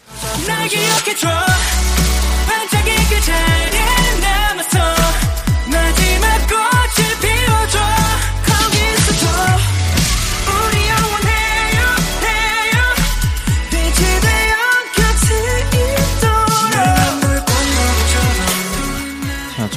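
A loud, densely produced K-pop boy group song plays continuously on a radio program, with bright synths, punchy beats and layered vocal melodies filling the mix from start to finish.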